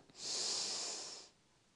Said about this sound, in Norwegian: Da kan vi begynne med å puste. Pust godt inn med nesa, og så holder du pusten.